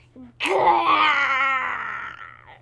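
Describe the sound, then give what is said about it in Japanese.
A single loud, drawn-out monster-like groan with a growling edge, rising sharply and then fading over about two seconds, heard on its own with no talking, made by a tiger-like creature deep inside a cave. “え何の音だなんかモンスターみたいな音が聞こえるぞなんだなんだ”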